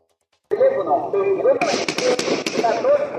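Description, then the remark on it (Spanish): A rapid burst of sharp, cracking gunshots, five or six loud bangs in quick succession, fired at a pickup truck in which a family was traveling in Veracruz, strikes over a steady hum of voices and background noise. “Escuche usted, por favor, escuche cómo se fundió esta rafagueada contra la camioneta donde viajaba esta familia.”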